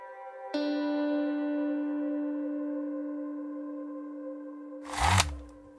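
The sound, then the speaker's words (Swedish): A steady ringing tone hums for several seconds, then a single loud, deep dynamite blast booms out near the end with a heavy low rumble, as grenades are destroyed with dynamite in a pit in a sand pile. No one speaks. “Explosionen blir stor, smällen stark och dov.”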